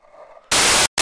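Loud, close scratchy rustling right against a microphone, like stubble rubbing on it, in a long harsh burst followed by a short second one after a brief pause.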